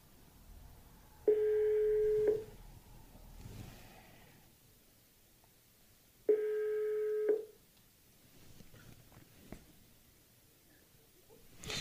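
A phone ringback tone from a call placed through Alexa to a contact's mobile phone sounds twice, each a steady electronic burr lasting about a second, separated by a long pause, with quiet background noise in between.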